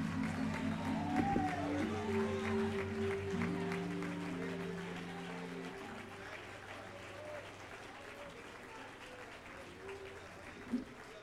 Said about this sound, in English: If you came to give God praise, why don't you clap your hands for about 20 seconds and just shout unto God?